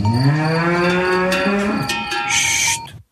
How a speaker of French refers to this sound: En 2017, ce sont des résidents secondaires de Haute-Savoie qui s'étaient plaints des cloches des vaches dans les pâturages.